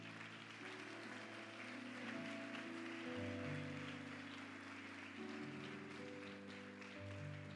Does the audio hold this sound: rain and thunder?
no